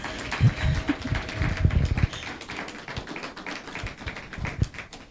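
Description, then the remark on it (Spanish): A church audience applauds for the Lord during a service, a dense crackle of many hands clapping together that stays steady for about five seconds, fuller and louder at first before thinning slightly toward the end. “¿Por qué no le damos un aplauso al Señor que está en casa?”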